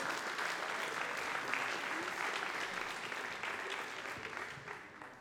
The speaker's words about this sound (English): So round of applause once to all of you for completing those applications.